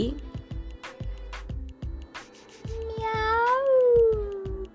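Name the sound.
kitten meowing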